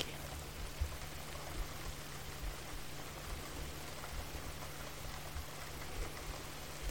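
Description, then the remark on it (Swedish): Steady rain falls in a dense, continuous hiss, with scattered heavier drops tapping through it. The sound is even and moderately quiet, with no voices present. “Fem andetag, bara följa regnet och andetaget i synk.”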